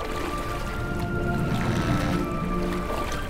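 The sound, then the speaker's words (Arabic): Tamtam's small boat, carrying Sinbad and the two brothers, moves steadily through water toward the captain's ship, with continuous sloshing and churning and a faint tonal hum underneath, holding an even level throughout. “تسابق الأخوان للصعود مع سندباد على قارب طمطم واتجهوا نحو سفينة القبطان”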